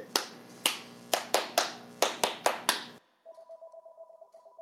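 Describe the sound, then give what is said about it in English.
A cordless landline phone base station rings with a short, warbling electronic tone, steady, preceded by a quick irregular run of sharp snapping clicks. The handset has been turned off, but the base keeps ringing. No one speaks. “Well, I turned the phone off, but the bass is still ringing.”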